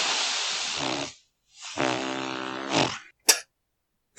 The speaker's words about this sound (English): just the the sigh, but with lips and vibrations. Yeah. Turns out it's surprisingly hard to describe.